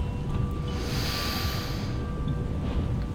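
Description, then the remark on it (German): A long, deep inhale drawn through the nose by someone a little out of breath from running, a rough breathy snort that swells and fades over about three seconds, with no talking. “schaut über das Schlummerland und schnauft ganz tief ein”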